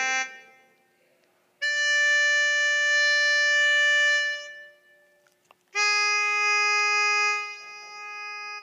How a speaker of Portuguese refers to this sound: Sabe o que é isso? Isso é um diapasão. Sabe para que serve um diapasão? Para que todos os instrumentos de uma orquestra estejam alinhados no mesmo tom.